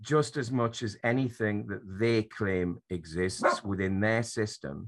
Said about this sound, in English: Sorry, that's my dog heckling me again.